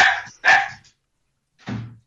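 A dog named Boston barks three times: two quick, sharp barks close together, then a short pause and a lower, gruffer third bark, with no talking.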